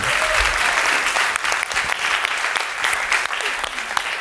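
An audience at a live show breaks into steady, sustained applause for a volunteer from the audience, dense overlapping claps at an even level for several seconds, with no voices standing out above it.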